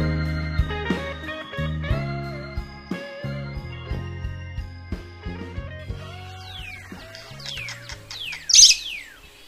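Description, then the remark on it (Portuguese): Birds chirp and tweet at dawn in a native tribal village in quick, scattered calls over a steady low humming background, the high sweeping notes growing busier toward the end with one sharper, louder burst. “Já é possível ouvir o som de alguns pássaros e o grito de algumas crianças correndo pelas ruas.”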